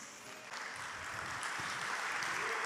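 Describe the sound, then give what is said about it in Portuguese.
An audience claps for the Lord, steadily, broad dense applause that swells slightly after the first half second and stays full and sustained, with faint voices mixed in underneath. “Você crê assim? Aplaude o Senhor.”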